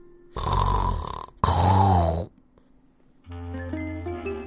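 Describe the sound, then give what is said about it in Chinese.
Two loud, rough snores from a lion king, each about a second long with a low rumbling rattle, followed after a short pause by a steadier, droning low tone. “士兵没等狮王醒来，就连夜逃跑了，因为狮王的呼噜声有点大。”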